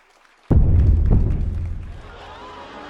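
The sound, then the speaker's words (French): Two loud, deep bass drum hits, struck by a circus orchestra musician, land about half a second apart, heavy, their low boom ringing on and slowly fading after the second strike. “L'un des musiciens tapa à deux reprises sur sa grosse caisse.”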